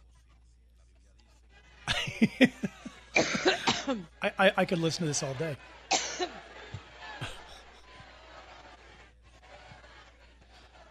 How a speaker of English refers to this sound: All right, I think we, we've heard enough of the cough. This goes on for like minutes.